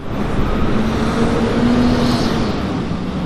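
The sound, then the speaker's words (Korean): Busy road traffic outside a building in Washington, DC rumbles steadily and loudly throughout, a dense wash of engine noise and passing vehicles with a low droning hum rising briefly in the middle. No one speaks. “복잡한 도로에 서 있는 건물의 문을 열고 들어가자 완전히 다른 세상이 펼쳐집니다.”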